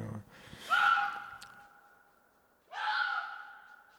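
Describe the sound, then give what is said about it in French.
A fox gives two loud, harsh screaming calls at night in a forest, passing close to the microphones. Each raspy cry rises sharply, then trails off into a drawn-out wail, with a short quiet gap between them. “On entend un renard dans la nuit comme ça, dans la forêt”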